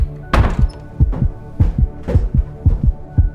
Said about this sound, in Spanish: Como podéis escuchar, mi corazón late ya 120 pulsaciones.